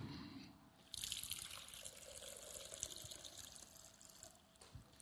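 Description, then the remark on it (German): A little water pours steadily into a funnel held by a helper during a demonstration, a continuous splashing trickle that starts abruptly about a second in and runs fairly loud before easing slightly at the end. “Ich habe hier einen Trichter ähm, ein bisschen Wasser und ich werde das Wasser jetzt in den Trichter rein äh, leeren und beobachtet mal, was passiert.”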